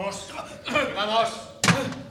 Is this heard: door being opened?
yes